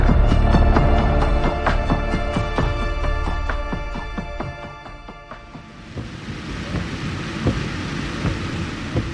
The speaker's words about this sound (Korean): 비 내리고 있는데 괜찮겠어요? 예. 소낙비도 아닌데요.